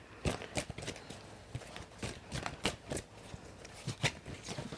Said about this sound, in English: So when I pull, usually the cards aren't this big. I shuffle until something happens. And that could be one of them flipping over, that could be dropping it.